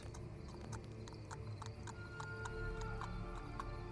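Hooves of Swann's horse-drawn carriage clip-clop at night in a steady, brisk rhythm, with wheels rumbling low underneath, moderately loud throughout, the carriage bumping into another carriage at every step forward.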